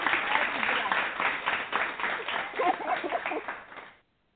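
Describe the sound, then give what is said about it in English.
A burst of applause sound effect: dense, steady clapping with crowd voices mixed in, holding at an even level for about four seconds before cutting off abruptly. “That last comment did not need to be part of the applause.”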